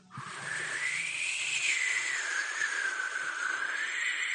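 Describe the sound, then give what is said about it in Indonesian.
A voice imitates a howling storm wind: one long, breathy, whistling moan that rises and falls in pitch, held steadily and fairly loud for several seconds with no talking. “pengalamannya waktu itu angin bener-bener kayak angin ribut gitu loh suaranya itu kayak gini”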